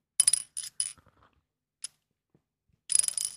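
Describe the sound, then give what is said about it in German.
A small plastic spinning top shaped like a mini umbrella whirls on a tabletop, giving off bursts of dry, rattling clatter, a single sharp click in a pause, then another longer buzzing rattle as it spins again. “so ein kleiner Mini Regenschirm aus Plastik, der aber ein Kreisel ist. Also dann kann man dann so drehen auf den Tisch”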